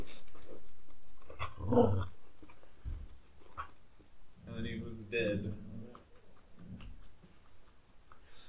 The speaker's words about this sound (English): Hush, puppy.